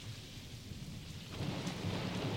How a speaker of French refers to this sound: Alors là, c'est l'orage, la pluie.